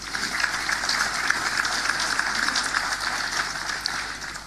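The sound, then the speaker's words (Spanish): A crowd at a municipal event in Chile claps steadily for several seconds for representatives of the carabineros, PDI, firefighters and an emergency response group, a dense, even patter of many hands at moderate loudness, with no voices over it. “Representantes de carabineros, PDI, bomberos, agrupación de respuesta a la emergencia, un fuerte aplauso para ellos.”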